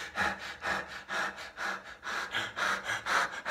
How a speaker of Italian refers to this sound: E soprattutto, la cosa più importante, è la respirazione. Per costruire l'ansia dobbiamo respirare in maniera superficiale, quindi solo di petto, e in maniera più frequente.